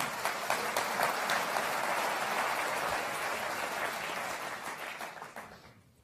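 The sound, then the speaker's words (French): An audience in a hall applauds a speaker because they agree with what he is saying, a dense, steady wash of many hands clapping that holds for several seconds and then fades out toward the end. “Et vous avez vu que les gens ici, ils applaudissent dans la salle, et c'est pas parce qu'ils m'applaudissent moi, c'est parce qu'ils ont compris ce que je raconte et qu'ils sont d'accord.”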